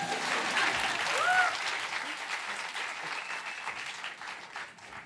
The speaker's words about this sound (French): Là, vous pouvez applaudir du coup.